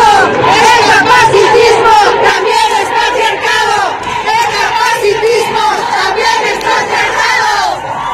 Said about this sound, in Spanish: ¡La cultura de dieta es violencia patriarcal! ¡La cultura de ¡Ni una más! ¡Ni una más! ¡Ni una más! una y otra vez el grito.